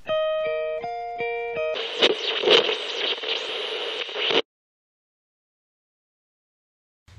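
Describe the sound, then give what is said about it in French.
An alternative rock song plays: a few clean, evenly stepped guitar notes give way to a loud, dense burst of distorted guitar, which cuts off abruptly into silence after about four seconds. “On va s'écouter un titre de leur album …, un album excellent.”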